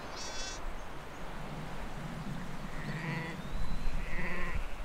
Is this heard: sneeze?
no